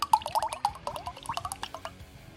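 Tropical banana smoothie sour ale is poured into a glass so the sediment from the bottom of the bottle ends up in it, with a steady glugging and bubbling splash, liquid sloshing and fizzing in quick irregular bursts for a couple of seconds, no voices over it.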